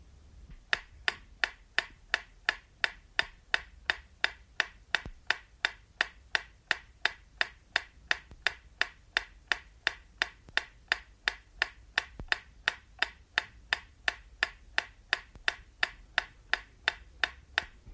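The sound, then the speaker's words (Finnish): A metronome ticks steadily, about two crisp, even clicks per second, continuing without pause with nothing else sounding around it; it plays from the left speaker only, as a stereo receiver test. “Seuraavassa kuulette metronomin tikitystä, jonka pitäisi kuulua ainoastaan vasemmanpuoleisesta kaiuttimesta.”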